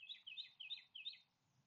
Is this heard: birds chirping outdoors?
yes